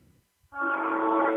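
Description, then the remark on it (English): A loud, sustained train horn blast from the trains in the East End starts abruptly after a half-second of faint low rumble and holds steady to the end, rich and brassy, with no voices present. “And that those are and what you're hearing right there, Ernie, are the uh, the trains in the East End.”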